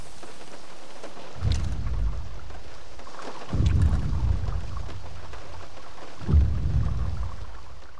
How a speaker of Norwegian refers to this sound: Håper det ikke begynner å regne og tordne, for da ja, det var jo litt uh, torden vi Jeg tror det var litt smellig